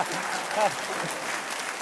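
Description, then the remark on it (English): An audience claps in a dense, steady patter of many hands that fills the whole stretch at an even level, with a brief voiced cheer rising over it partway through. “If, if one person claps,”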